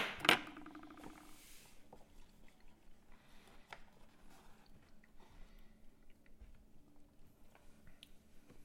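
Chewing and wet mastication sounds as a hot, spicy freeze-dried meal with peas is eaten, with small irregular clicks and squishes, starting with a brief louder clatter, no talking.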